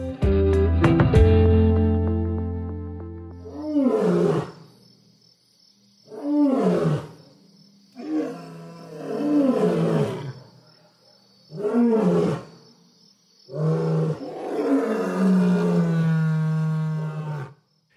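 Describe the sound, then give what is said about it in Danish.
A lion roars in a series of deep, rumbling bursts, about six calls spaced a second or two apart, loud, with a swelling final roar after a brief tonal opening. “Et øh, løvebrøl.”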